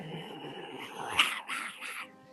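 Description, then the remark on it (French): Wolves surrounding someone growl and snarl, a continuous low rumble broken by a sharp yelp-like peak midway and a couple of harsher snarling bursts, with no one speaking. “Puis le premier à agir, entouré par les loups, des voix sortir le doucement.”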